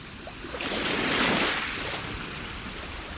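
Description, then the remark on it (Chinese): Sea waves washing onto a sandy beach: a single broad, hissing surge swells over about a second, then slowly recedes into a steady, low rumble of surf. No voices. “我想就这样迎着阳光，站在海边，听着海浪的声音，可以什么都不用想。”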